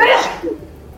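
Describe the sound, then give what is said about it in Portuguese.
A single sharp, loud sneeze bursts out at the start, followed by a brief breathy tail and quiet background noise. “Que Saúde.”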